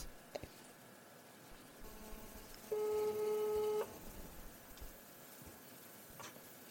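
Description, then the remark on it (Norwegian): One steady electronic ringback tone on a phone line as a call is being placed, lasting about a second, loud and clear over a faint hiss, with a few soft clicks before and after and no talking. “Vil den ringe? Må sette på Ja, den ringer.”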